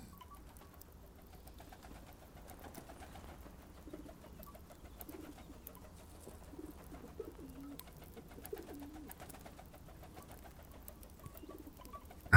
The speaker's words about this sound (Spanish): llegar lo suficientemente abajo, además de escuchar el zumbido que hacían las palomas y la misma clarita al atravesar los aires, pude de nuevo distinguir sus rasgos.